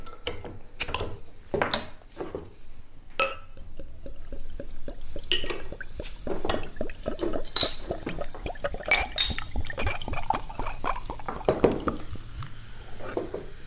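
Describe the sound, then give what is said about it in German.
A comparatively bitter Pils beer from Bitburg in the Südeifel region glugs and splashes into a glass, with a few clinks of glass and bubbling liquid continuing for over ten seconds, no voices present. “Und ich habe vor mir ein vergleichsweise herbes Pilz, witzigerweise ebenfalls aus der Region, nämlich der Südeifel, um genau zu sein, aus Bitburg.”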